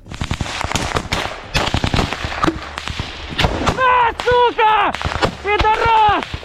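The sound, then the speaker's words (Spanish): Rapid, irregular bursts of sharp gunfire crack throughout, some shots in quick clusters, as Ukrainian soldiers storm Russian trenches near Bakhmut during the Ukrainian counteroffensive in the Russia-Ukraine war. Partway through, men begin shouting loudly over the continuing shots. “Así se viven los feroces combates de la contraofensiva ucraniana en un intento por recuperar sus territorios ocupados por Rusia.”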